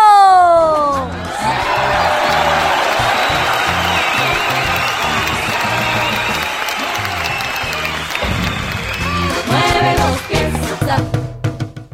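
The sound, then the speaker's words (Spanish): A crowd breaks into sustained, loud applause mixed with cheers and a few high whoops, the dense clapping holding steady for the whole stretch before turning a little more ragged at the end. “a quien pido nuevamente un fuertísimo aplauso.”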